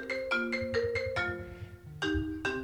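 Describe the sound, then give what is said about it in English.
A phone rings with an incoming call, a melodic ringtone of a quick series of bright electronic notes repeating in a loop, fairly loud, with no voices over it. “never in my life sorry phone call apparently it still works um, and you put it on airplane mode”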